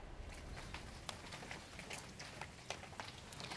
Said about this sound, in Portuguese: Ah, será que está chovendo? Parece mesmo.